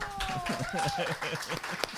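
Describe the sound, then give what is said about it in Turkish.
Scattered hand clapping from a small group applauding a guest after a song she chose, mixed with voices and laughter, with one sharper clap standing out near the end. “bir alkış.”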